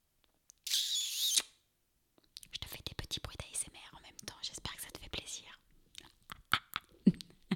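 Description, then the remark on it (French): A breathy whispered hiss is followed by several seconds of soft, wet mouth clicks and smacking noises, intimate and quiet in the style of ASMR. “oh putain, faut que je passe un épisode de podcast euh, à, faire des, des bruits d'ASMR.”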